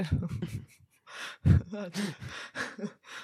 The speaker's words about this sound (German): oh, sorry für das Atmen ins Mikro.